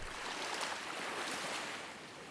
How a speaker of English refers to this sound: The tide is low and the waves are calm as dawn is right around the corner.